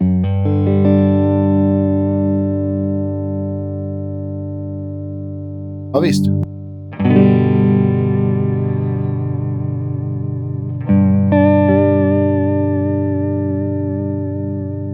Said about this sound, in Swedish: Den, den har ju lite trekantsvåg och Precis. låter väldigt så här klassiskt eh, chorus vibratorpedal. Exakt, och så vrider vi ner, ska se, när jag vrider farten väldigt långsamt.